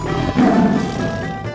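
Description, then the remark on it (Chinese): A fierce black tiger, the mount of the god Zhao Gongming, lets out a deep, rumbling roar lasting over a second, loud and growling with a rough low-pitched rasp, swelling early and then fading slightly. “别人是骑着马，他骑的可是一只很凶猛的黑老虎哦。”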